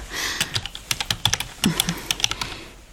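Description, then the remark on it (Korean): Rapid typing on a computer keyboard, entering a date into a solar-lunar calendar conversion program, a steady run of crisp clicks in uneven bursts, with no voices. “양력 음력 변환 프로그램에 들어가서 그해 1월 23일을 입력하면 음력 12월 3일 정축월 임수일”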